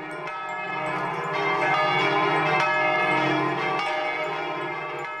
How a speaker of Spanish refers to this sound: Pero el nerviosismo fue mayor cuando se convencieron que el repique de esta campana no era producido por ninguna de estas razones, y la campana continuaba tocando de la misma frenética manera.